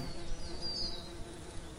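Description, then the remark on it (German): A steady, low buzzing of many bees fills the air, a dense continuous hum with a faint higher whine drifting through, moderately loud, with no voices. “Die Bienen sammeln Pollen und Nektar aus den Blüten und tragen sie in ihr Zuhause, wo sie mit vielen, vielen anderen Bienen gemeinsam in einer großen Familie, ihrem Bienenvolk, leben.”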